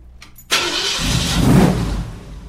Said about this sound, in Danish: og gerne en amerikansk Mustang V8. Hvor meget af din kærlighed er bundet op på den lyd der? Ah, det er det meste. Det, det, er, øh, det er jo det ypperste.